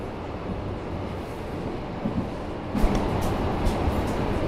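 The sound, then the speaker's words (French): Steady, heavy rumble inside a moving metro carriage, with a constant low roar and a few sharper rattles and clanks partway through. No one speaks. “touchent des barres jaunes du métro”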